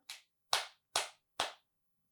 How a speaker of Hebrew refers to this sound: תעשי, תמחאי כפיים רגע. תנסי להפוך רגע. זה לא נוח לי. לא נוח? תנסי mm. למחוא כפיים רגע ככה הפוך. ככה?